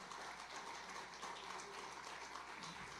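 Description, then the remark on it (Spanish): An audience breaks into applause, many hands clapping in a dense, steady wash that holds at an even level throughout, with no voices standing out above it. “Denle un aplauso con confianza, hermano.”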